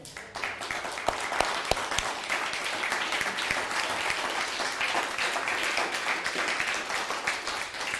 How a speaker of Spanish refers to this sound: Saludamos, vamos a dar un fuerte aplauso a todo Estados Unidos, por favor.